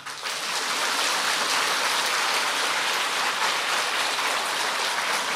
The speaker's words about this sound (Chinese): 鼓掌！